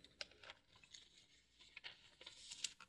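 Soft, irregular crackling of paper being crinkled, with quick dry crunches and rustles spread throughout, fairly quiet, with no voices.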